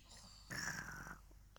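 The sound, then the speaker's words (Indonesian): A child's voice imitates a father snoring with one short, raspy, throaty snort, followed by near silence. “Gimana suaranya suara ayah, ayah lagi ngorok?”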